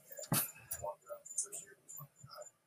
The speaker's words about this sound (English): Yo, I'm sorry for all that barking. I had to go down and get my auntie's uh, meals on wheels, and they sensed that there was somebody at the door. So, as usual, they have to investigate.